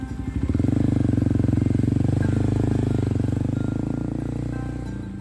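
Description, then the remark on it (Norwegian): A motorcycle engine idles with a steady, chugging putter, swelling briefly after the start and then holding an even rhythm before easing off slightly at the end. “Og på kveldene så tar han strøjobber som motorsykkelbud.”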